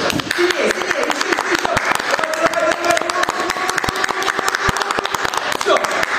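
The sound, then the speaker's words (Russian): An audience claps hands continuously for several seconds on a performer's signal, meant to bend a metal knitting needle in a trick, many sharp overlapping claps forming a dense, steady patter, while a man's voice speaks faintly over the clapping. “Ваша задача, давайте просто сейчас похлопайте в ладоши.”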